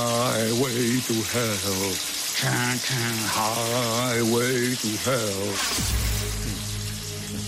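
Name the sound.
shower water running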